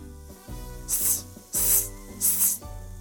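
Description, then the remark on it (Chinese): A viper hisses three times, sharp airy bursts about half a second each with short gaps between, over a steady low musical hum. “呃，是蝮蛇。”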